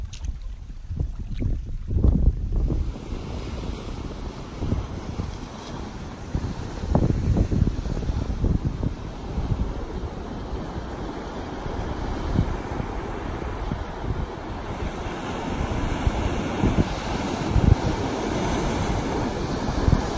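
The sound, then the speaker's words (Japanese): Ocean waves break and wash against a rocky shore at Kohaku Beach, a beach with Pohaku rocks, at sunset, in repeated surges, with steady wind buffeting the microphone throughout. The surf sounds fairly loud, and no voices are heard. “そして音が切り替わって今度は夕焼けの時の紅白ビーチポハクの岩があるビーチそこの波の音を聞いてください”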